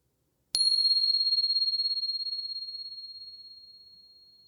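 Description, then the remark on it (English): A single bell is struck once, producing a bright, high, clear tone that rings out and slowly fades over several seconds, with nothing else around it. “And here comes the bell.”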